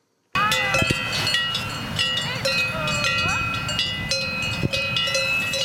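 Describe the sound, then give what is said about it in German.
Several cowbells clank and ring continuously in an irregular, overlapping jangle, steady, as six cows are brought into the barn for milking in the evening on the Inneralp alpine pasture in the Landwasser valley. “bringt die sechs Kühe in den Stall, um sie zu melken”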